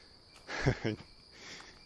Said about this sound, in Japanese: そうか9月の10日でもセミって泣いてたんだなっていうのは人生47年目8年目にしてようやく知りました